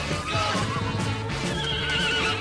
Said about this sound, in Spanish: Escuchamos caballos, hasta incluso una turba persiguiendo una zorra.